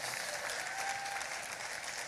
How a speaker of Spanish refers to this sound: démosle un aplauso a todos los que se conectan en todas partes del mundo acá en HOSO